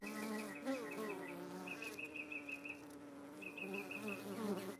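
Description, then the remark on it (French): Many bees buzz steadily all around among spring flowers, several droning tones overlapping and wavering as they move around, with no one speaking. “En parlant d'abeilles, attention, il y en a partout ici.”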